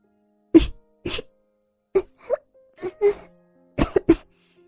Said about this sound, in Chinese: 他痛苦的咳嗽着，期间还伴随着几声干呕。